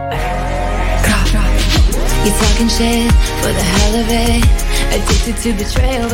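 A pop song plays loud and steady, with dense layered synths, a deep bass that swoops downward in a repeating pattern, and a driving beat filling the whole stretch.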